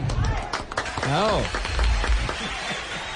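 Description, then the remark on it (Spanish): An audience applauds a nominee at an awards presentation with a steady, dense patter of clapping for about three seconds, while a voice calls out over it with a rising and falling tone. “aplauso, el aplauso para”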